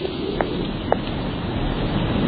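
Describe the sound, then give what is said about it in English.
Wind sweeps steadily through tree leaves in a continuous soft rustling hiss, broken only by a couple of faint brief ticks, with no voices. “Caillou like the sound of the wind in the leaves.”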